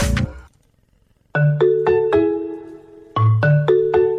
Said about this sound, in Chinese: 哎，谁打电话？